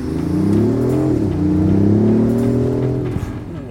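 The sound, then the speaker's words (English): A BMW i8 Roadster hybrid supercar accelerates hard during a road test, its loud engine note climbing in pitch, dropping briefly at a gear change, then rising again before easing off near the end. No one speaks. “To find out, we have a thorough test on road with some interesting public reactions.”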